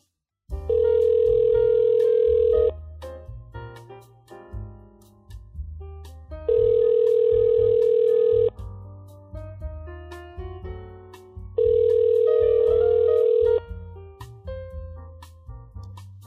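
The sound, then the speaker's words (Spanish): A phone's ringback tone sounds three times while calling a friend, each a steady, fairly loud two-second tone with pauses between, while soft music plays underneath throughout. “Lo podríamos llamar, aprovechando que estamos los tres acá, y le preguntamos lo que tengamos dudas.”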